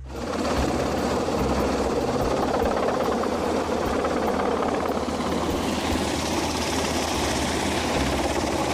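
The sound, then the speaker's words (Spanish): An army helicopter runs steadily and loudly during a medical emergency exercise, its engine roaring with a rapid, chopping rotor pulse that holds constant throughout, with no voices present. “se demostró la capacidad de atención que tiene el ejército para atender a emergencias médicas con el uso del helicóptero”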